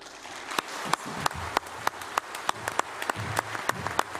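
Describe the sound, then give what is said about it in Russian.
Applause from an audience, a steady wash of clapping with several sharp individual claps standing out at a fairly regular beat, continuing throughout with no talking. “аплодировали лучше”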